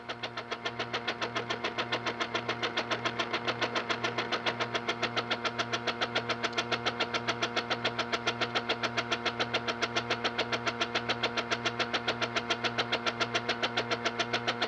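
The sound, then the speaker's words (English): A vacuum spatulator, a mechanical mixer with a vacuum hose attached, runs with its clutch engaged, mixing dental plaster under vacuum for 30 seconds. It gives a steady mechanical drone with a low hum and a fast, even pulsing rhythm, holding constant and fairly loud throughout, with no talking. “Now that we have mixed this for 30 seconds, we'll disengage the clutch and vibrate to get the material down from the side of the can, disengaging the vacuum.”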